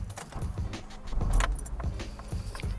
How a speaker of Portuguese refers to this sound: Meu carro é um carrinho velho que vocês vão escutar ele sendo ligado agora.